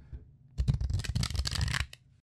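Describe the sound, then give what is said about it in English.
A deck of cards is riffle-shuffled loudly during a round of a card game, a dense burst of rapid crisp flutters lasting about a second and a half before stopping abruptly. “Okay, I'll, I'll do my loud shuffling just because it's so much fun.”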